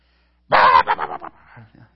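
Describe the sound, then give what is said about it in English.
A voice imitates a small 13-pound dog barking: one loud, drawn-out yap followed by three or four quicker, fading yips, with nothing else underneath. “And he's got, you know, like he doesn't bark often, but when he barks, the whole neighborhood hears it.”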